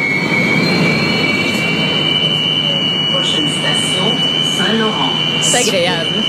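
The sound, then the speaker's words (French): Montreal metro noise from the new Azur train cars: a loud, steady roar with constant high-pitched electric whining tones layered above, and brief rising squeals toward the end. “Non, mais c'est-tu pas agréable, toi, entendre ça quand t'es à la station ou encore quand tu es dans un des véhicules de, de, de, de dans une des voitures Azur en fait parce que c'est ces voitures là les nouvelles du métro”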